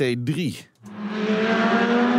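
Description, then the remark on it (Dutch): A man speaks briefly, then a Lamborghini Huracan GT3 race car, driven by a Lamborghini racing driver at the Nationale Autoshow, takes over with a loud, sustained engine roar, holding a steady, slightly rising pitch through to the end. “Hij is coureur bij Lamborghini en hij rijdt in de Huracan GT3.”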